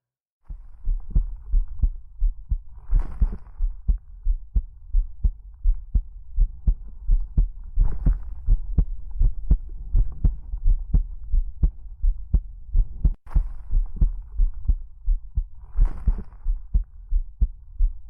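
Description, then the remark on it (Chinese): A steady, deep human heartbeat, heard with an ear against the chest, thumps in a regular rhythm, soft low pulses repeating about twice per second over a faint continuous hum, with no voices. “有没有听到我心跳的声音呢？”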